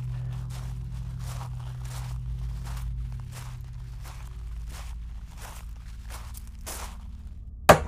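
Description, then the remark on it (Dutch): Steady footsteps crunch along a gravel path leading to a front door, about a dozen even, unhurried steps over a low background hum, ending with a sharp louder knock or scrape at the close. “ze stapte het grindpad op dat naar de voordeur leidde.”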